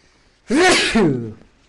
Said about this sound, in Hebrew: לבריאות.